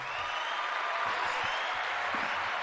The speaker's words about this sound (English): Love the applause.